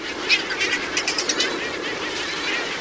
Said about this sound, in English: And along the Pacific, one very distinctive gull has come just for a summer visit the Heermann's gull.